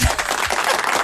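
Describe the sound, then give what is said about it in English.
A brief burst of loud, dense applause from a crowd, many hands clapping at once in a continuous wash of sound with no voices. “And uh, when, when we land, there'll be a big round of applause.”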